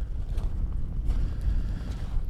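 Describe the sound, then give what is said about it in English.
Strong gusting coastal wind, picking up near the tip of a beach fishing spot, buffets the microphone with a continuous low, rumbling roar. It stays steady throughout, with brief rises in intensity and no speech. “as you might hear i'm now getting closer to the tip where the wind is picking up here uh, and uh, that's what i want unfortunately it's from it's from my wrong side, so to say.”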